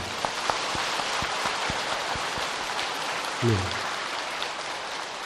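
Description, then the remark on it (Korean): An audience applauds steadily for the head of a research institute who has stood up, a dense, even wash of many hands clapping that holds at a constant level throughout, with a brief low voice surfacing briefly partway through. “박수를 좀 쳐 주십시오.”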